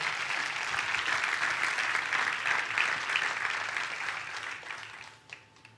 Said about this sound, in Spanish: Denle un fuerte aplauso a Dios por eso.